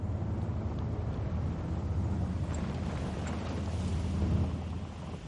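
An off-road vehicle's engine rumbles steadily as it takes a curve on a dirt road under lush vegetation, a continuous low drone with a rough, noisy texture and no voices.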